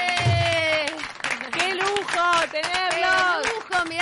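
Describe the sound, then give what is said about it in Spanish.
Steady clapping runs throughout, mixed with loud whooping and cheering voices that rise and fall in pitch, making a lively burst of applause in a radio studio after a live band performance. “que son los aplausos de la radio.”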